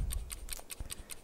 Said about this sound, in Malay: Ini bu Ini bunyi bunyi jam ah ini bunyi jam.